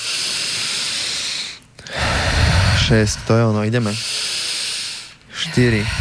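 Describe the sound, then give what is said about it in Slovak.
Heavy breaths rush in and out in a steady rhythm during a guided breathing exercise, each one a long airy hiss, with a man's voice speaking briefly between them. “Má to byť také intenzívnejšie dýchanie, to je ono.”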